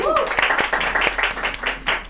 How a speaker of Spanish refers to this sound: Un aplauso